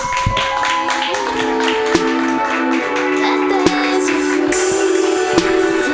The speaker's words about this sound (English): Keep that hand clapping together